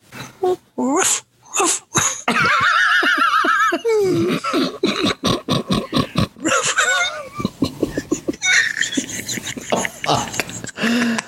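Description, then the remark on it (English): A woman imitates puppy sounds: a run of high, wavering whines and whimpers, then quick yips and yelps in a fast, uneven string that keeps going. “Yeah, dude, she starts doing these the fucking fuck? uh, puppy sounds and shit, bro.”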